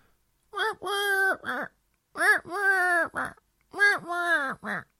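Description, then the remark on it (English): A person's voice imitates a pigeon-like bird call, three wordless hooting phrases in a steady rhythm, each a short note, a long wavering one, then a short one, fairly loud. “Except he sounds like a pigeon. I don't know what the heck my sound was.”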